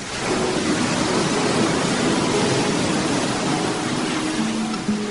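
A steady, continuous roar of sea waves and surf washing in, loud, with no distinct breaks between swells and no voices.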